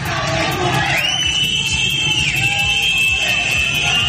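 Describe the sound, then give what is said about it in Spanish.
Loud, continuous crowd noise fills the protest streets of Arak, Iran, on the anniversary of Mahsa Amini's death, with overlapping shouting voices, while a steady high-pitched whistle or siren tone rises and then holds above the din throughout. “Así sonaban las calles de Arak.”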